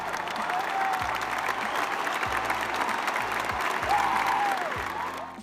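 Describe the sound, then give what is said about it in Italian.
A dense, steady burst of crowd applause, a sound effect added by an editor, lasts about five seconds at an even loudness, with a couple of brief rising whistles over the clapping and no talking. “Qui il tuo amico editor metterà un applauso.”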